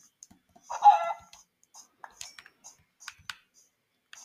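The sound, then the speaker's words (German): A hen gives one short, fairly loud cluck, followed by a scatter of faint clicking and tapping sounds. “Ja, eine Henne.”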